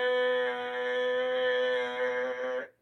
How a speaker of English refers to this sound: Thank you for that air horn sound effect. I think I have, Maybe I don't have the air horn here. That's on my turntable.